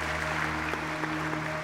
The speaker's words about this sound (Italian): Questa orrida parata degli orrori sta applaudendo